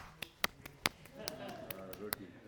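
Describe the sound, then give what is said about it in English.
A quick, uneven series of sharp slaps of roti dough being patted flat between palms for fresh roti at home, about eight crisp slaps, with a faint voice murmuring underneath in the second half. “It was clapping, but a different type of clapping.”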